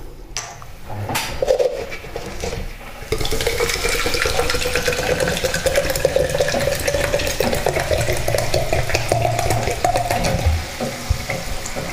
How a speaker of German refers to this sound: Während der Kaffee macht, schenke ich mir schon mal ein bisschen Wasser ein. Das wäre jetzt der zweite Becher.